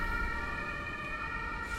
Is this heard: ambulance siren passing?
yes